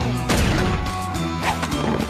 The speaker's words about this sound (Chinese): 看我的餐巾大炮！汪汪！